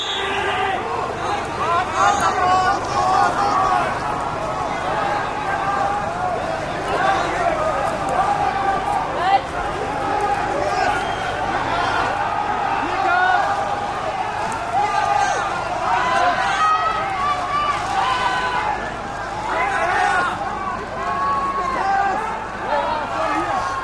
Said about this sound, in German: meine, wir laufen die alle senkrecht auf die Gleise zu.